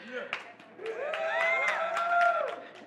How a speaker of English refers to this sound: And for that, I get a cheer.